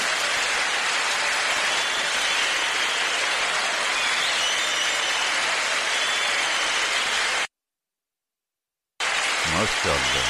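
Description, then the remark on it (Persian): Steady, dense applause from a crowd, a continuous hiss of many clapping hands at even loudness, cutting off abruptly into a brief silence before resuming. “صدا بردار تشویق کن خواهش میکنم اینجا تشویق میبره”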